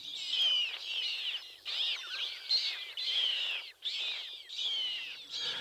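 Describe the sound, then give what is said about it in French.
A bird sings a rapid, continuous series of high warbling phrases, repeated in bursts with brief pauses, clear, with no voices present. “les mystères de l'apprentissage et des variations des chants des oiseaux sont redevenus un sujet de recherche, révélant depuis une dizaine d'années d'étranges correspondances avec l'apprentissage et les variations des langages humains.”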